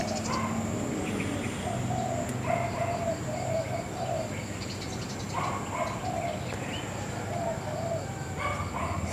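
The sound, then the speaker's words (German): Outdoor ambience with birds chirping and cooing, while dogs bark faintly now and then in the background over a steady low hum. “Hör die Tiere im Hintergrund, die Vögel, die Hunde.”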